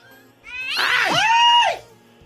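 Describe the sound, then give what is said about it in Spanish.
A cat in Denver that is scratching people lets out one loud, drawn-out yowl lasting about a second, its pitch wavering up and then sliding down at the end, with no talking. “Bien aquí el gato rasguñándonos.”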